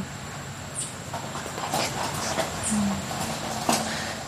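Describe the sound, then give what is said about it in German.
A car rolls slowly onto gravel, tires crunching and popping steadily over a low engine rumble, with no one speaking. “jetzt kommt ein Auto, das ist vielleicht kurz laut, weil die jetzt hier auf den Kies fahren.”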